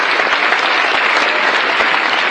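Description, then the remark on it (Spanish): Steady, loud applause from a crowd applauding the hosts who do service work, a dense wash of many hands clapping at once with no pauses and no voices rising above it. “Un aplauso para todos ellos y todos los anfitriones que hacen un trabajo de servicio.”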